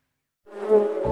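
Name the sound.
honeybee buzzing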